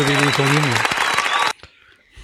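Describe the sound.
A burst of dense clapping fills the first second and a half, with a voice calling out over it, then it cuts off abruptly into near silence.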